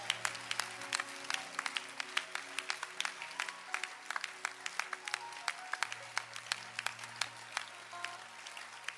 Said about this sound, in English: Clap your hands and let's appreciate God.